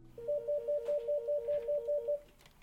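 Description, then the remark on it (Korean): An electronic telephone ringer trills in a rapid alternating two-tone pattern, about ten warbling bursts in an even rhythm, moderately loud, then stops, leaving quiet room tone with no speech; an inquiry call ringing in the office of an overseas adoptee solidarity organization in Korea. “오늘도 해외 입양인 연대 사무실은 아, 문의 전화와 uh, 찾아오는 사람들로 분주한데요.”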